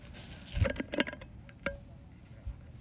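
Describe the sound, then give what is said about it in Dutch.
A speaker is set down again onto an empty glass soup jar that held cold cucumber and avocado gazpacho: a quick cluster of clattering knocks, then a single ringing glassy clink, followed by a soft thud. No one speaks. “Nou, we hebben onze speaker zetten eh, opnieuw neergezet op onze lege pot soep.”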